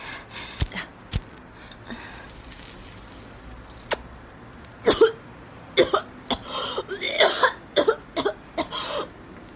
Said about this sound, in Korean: 영양사가 기침을 하며 눈물을 찔끔 흘렸다.